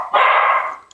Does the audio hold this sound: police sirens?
no